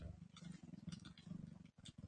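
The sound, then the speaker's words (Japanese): A cat purrs steadily, a low rumbling hum pulsing in a quick, continuous rhythm with a brief pause near the end before resuming. “ぐるるしか言わない。”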